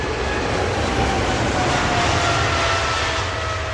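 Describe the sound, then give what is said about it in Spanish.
A loud, steady jet engine roar with a high whine, like an airplane powering up for takeoff, filling the whole clip with no voices. “Así que abróchense los cinturones que el avión está a punto de despegar.”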